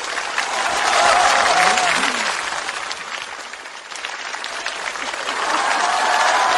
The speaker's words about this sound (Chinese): 掌声有请冯巩闪亮登场。